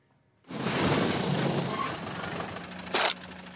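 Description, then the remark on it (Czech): Shovels rustle and scrape through piles of dry fallen leaves during block street cleaning in Žabovřesky, Brno, in late November, in a steady, loud, hissing swish, with a brief sharper scrape near the end. No voices. “Lopaty šustí v hromadách listí, blokové čištění v Brně Žabovřeskách.”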